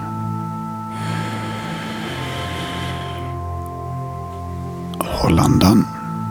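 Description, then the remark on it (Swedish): A long, slow deep breath drawn in over a couple of seconds, then after a pause a louder, rougher breath let out, as part of a guided breathing exercise, all over a steady, soft background drone. “Ta ett djupt andetag.”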